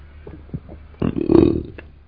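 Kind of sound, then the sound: human body sound, burp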